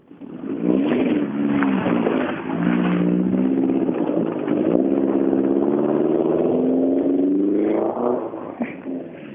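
A rally car engine revs hard and pulls away, its loud growl climbing in pitch as it accelerates, then easing off near the end, with no talking.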